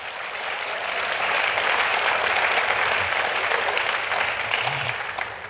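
Steady clapping from a crowd fills the whole clip, a dense, even wash of many hands at constant loudness with no talking over it.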